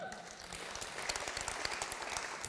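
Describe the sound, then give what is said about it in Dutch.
A church audience applauds steadily, many hands clapping in a dense, continuous patter at moderate volume without pause, in honour of passionate women who drive the church. “Nogmaals een applaus daarvoor.”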